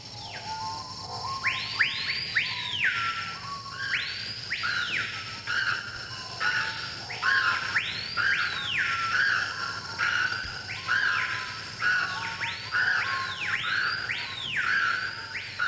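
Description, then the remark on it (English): Jungle birds screech over and over in rapid, arching rising-and-falling calls that overlap almost without pause, fairly loud, above a steady low background hum. No one speaks. “the trees here are in misery and the birds are in misery. I don't think they, they sing, they just screech in pain.”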